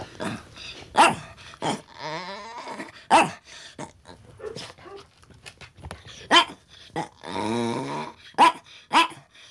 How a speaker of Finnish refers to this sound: Me sanotaan sitä WC-ankaksi, kun se on semmoinen hyvin, hyvin hauska se sen haukkuääni, kun se haukkuu ja siihen tulee kaikki semmoisia niin lisääniä mukaan. Niin sitten me sanotaan nebua. Se on meidän WC-ankka, kun se haukkuu.